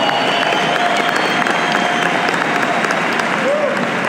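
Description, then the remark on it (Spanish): An audience applauds steadily, a dense, continuous wash of many hands clapping at an even, loud level, with faint crowd voices mixed into the clapping. “Al que a mí me gusta aplaudir es a ese.”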